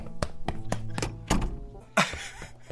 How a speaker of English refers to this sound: Do we have to hear how far the guy walks to? Go ahead and pick up the dialogue anytime here, guys. It's just walking.